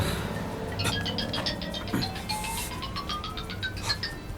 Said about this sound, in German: Da, das, das ist Biancas Nummer. Da ruft uns jemand von Biancas Handy aus an.